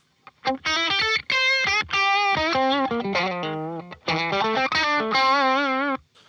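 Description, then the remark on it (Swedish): An electric guitar played through a solo boost pedal: loud, overdriven lead notes that sustain and bend through a melodic phrase, with a brief gap midway and no talking. “Jag, jag kan visa mm, lite grann. Exakt. Den, Jättegärna. Med soloboost.”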